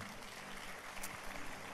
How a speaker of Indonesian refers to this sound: Yang setuju kita berikan tepuk tangan bagi nama itu.